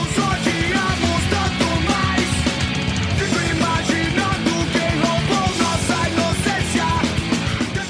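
A loud rock band song plays continuously, with driving drums, dense distorted guitars and shouted-sounding vocals filling the whole stretch at a steady, energetic pace.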